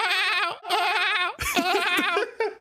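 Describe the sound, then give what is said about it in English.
A person imitates a whale call with loud, wavering tonal cries, three drawn-out warbling phrases in a row with brief breaks, no other talking. “my whale noise.”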